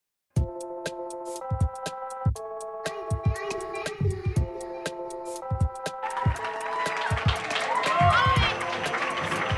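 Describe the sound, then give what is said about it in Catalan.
A bright musical jingle plays in steady stepped notes, then an audience's applause swells in underneath and builds to a dense, noisy ovation that continues to the end, as the hosts enter a live show at the Hoxton Barcelona. “hem demanat una ovació per entrar perquè tenim un ego que,”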